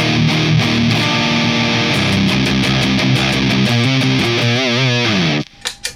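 A loud, heavily distorted electric guitar played through a Super Axolotl effects pedal rings out in sustained chords and notes, with wavering vibrato bends near the end before cutting off abruptly.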